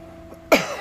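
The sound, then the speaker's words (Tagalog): A single sharp cough bursts out, loud and abrupt, followed by a short breathy tail and a faint second huff, with no talking around it. “I have a, I have a slight cough.”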